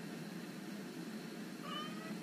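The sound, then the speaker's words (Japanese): A cat gives a single drawn-out meow near the end, its harmonics rising clearly over a steady background hiss, with no talking. “そういう時期なんよね 猫なん困っちゃうね”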